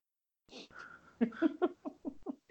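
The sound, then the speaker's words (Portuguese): Heavy, deep breathing into the microphone by a woman with a bad flu: a hissy rush of air followed by a quick run of rhythmic, voiced, panting pulses, loud with no words spoken. “Eu acho que você está respirando muito fundo.”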